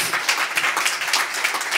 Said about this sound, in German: Ein großer Applaus nochmal für diese drei Songs